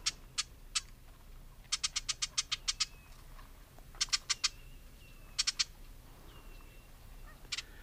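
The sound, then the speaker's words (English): A Ruby-crowned Kinglet gives dry, chattering call notes in early spring in the southeast: sharp, scratchy ticks delivered in quick irregular bursts of several notes, with short pauses between, clear over a quiet outdoor background. “So those are the call notes of the ruby crown kinglet.”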